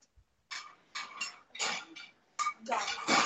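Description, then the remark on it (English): Dishes clatter and clink in a busy series of bright, irregular bursts, like plates and pots being stacked and handled, with no talking. “So that's a lot of dishes in the background.”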